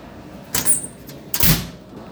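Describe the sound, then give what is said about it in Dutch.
Two doors of a 1954 steel wall cabinet in a living room clatter in quick succession, each a short, bright scrape-and-clank with a faint metallic ring, with no one talking. “een rechtstreekse lijn van het Bauhaus naar de deurtjes van de stalen wandkast uit 1954 van Wim Rietveld in onze woonkamer”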